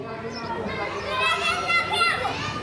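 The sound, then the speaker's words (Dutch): A young neighbour boy calls out for his mother repeatedly in high, sustained shouts, with the lively chatter of other children playing in the background. “Het buurjongetje met zijn eeuwige snotneus dat om zijn moeder roept.”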